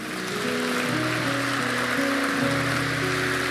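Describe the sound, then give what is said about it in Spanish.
An audience claps loudly for God in a dense, steady wash of applause that lasts the whole time, with sustained keyboard chords holding underneath and shifting pitch partway through. “Familia, antes de retirarnos, dan un aplauso fuerte a Dios.”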